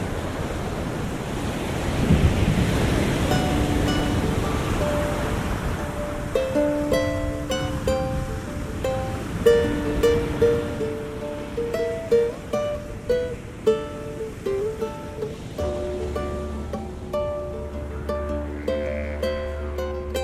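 Heavy ocean surf roars in a continuous rushing wash, with high waves swelling and crashing on an empty beach surrounded by palms and jungle, mixed with gusty wind buffeting the microphone. No voices are heard.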